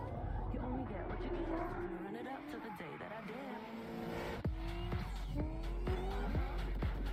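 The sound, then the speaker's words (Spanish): A racing car engine in a car video game trailer revs and whines through rising and falling gear shifts, with tire squeal and a few sharp knocks in the second half, loud throughout. “Pero realmente me encantan los juegos de, de carro. Y este se ve bien.”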